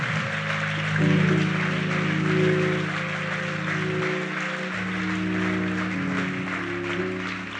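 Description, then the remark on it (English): A sustained burst of clapping from a large crowd giving a bishop a round of applause, dense and steady throughout, with a low organ-like chord holding underneath and shifting notes partway through. “Why don't you give the bishop a good round of applause today?”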